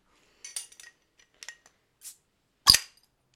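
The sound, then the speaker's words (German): Cork pulled from a bottle: a few soft scraping, rustling sounds of working at it, then one sharp, loud pop near the end. No talking. “Einfach der Korken.”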